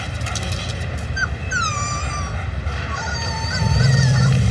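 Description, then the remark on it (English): A protective mother wolf gives several high, wavering whines and yelps in quick succession, sliding up and down in pitch over a steady low rumble of background noise. “He's a wolf. And that is its incredibly protective mother.”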